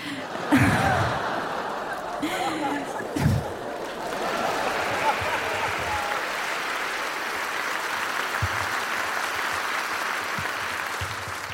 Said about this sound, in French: Ça sent les applaudissements de la pitié.